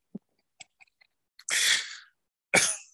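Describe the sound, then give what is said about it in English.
Two loud, harsh coughs burst out, the first long and raspy, the second sharp, after a few faint clicks and catches of breath. No talking. “coughed. I'm dying.”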